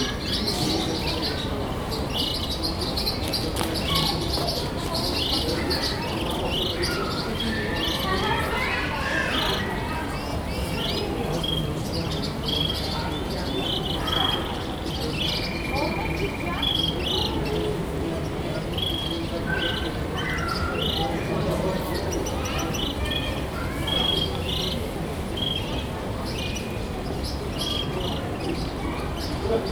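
Many birds chirp and tweet continuously in a busy market, their bright calls layered over a steady background murmur of crowd noise and faint voices.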